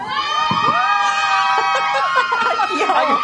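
audience shouting and cheering

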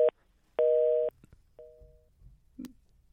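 telephone busy tone

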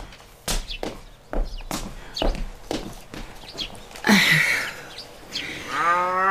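cow mooing

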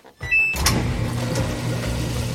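washing machine running

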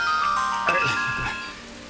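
phone ringtone ringing

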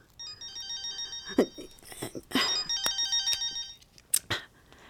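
telephone ringing

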